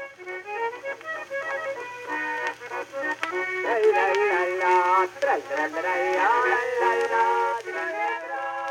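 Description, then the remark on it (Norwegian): An early gramophone record, probably the oldest record recording in Norway, titled Ball i Hallingdal and probably recorded at the Grand Hotel in Oslo in 1904, plays: a thin, band-limited melody with steady sustained tones and a faint low hum underneath, moderately loud and without anyone talking over it. “Det vi hører nå, er trolig den eldste plateinnspillingen i Norge.”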